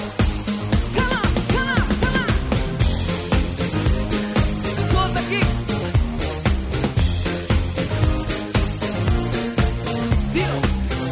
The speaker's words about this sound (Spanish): Ya que a ti te gusta tanto esta canción, vamos a partir con alta energía y esto es, a ver cómo se ponen tus ojos al escuchar.